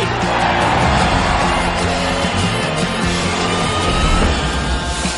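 A big round of audience applause, loud and steady for about five seconds, dense clapping blended with crowd cheering and a faint musical hum beneath.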